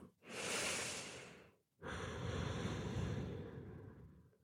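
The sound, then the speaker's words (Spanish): A slow, deep inhale as an airy breath, a brief pause, then a longer, steady exhale, with no talking; part of a guided breathing exercise. “Y este episodio en específico quiero que respiremos juntas.”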